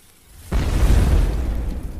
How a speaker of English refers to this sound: Oh man, it exploded. Who could have expected that?